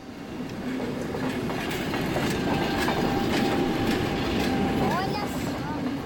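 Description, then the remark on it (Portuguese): A train rolls steadily along the rails, a continuous rumble with rhythmic clickety-clack beats and a brief metallic wheel squeal near the end. “E eles pegam o trem.”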